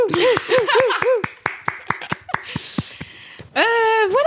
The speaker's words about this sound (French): J'essaie de faire un applaudissement dans un micro, c'est nul.